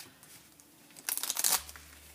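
A deck of oracle cards is shuffled for a card reading in one quick burst of crisp, rapid riffling and flicking lasting about half a second, with near-silence before and after.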